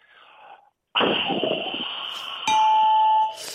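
A loud electronic quiz-show 'ding-dong-dang' correct-answer chime rings out after a brief faint voice, sustained bright tones with a second, higher ringing note layered in partway through before fading.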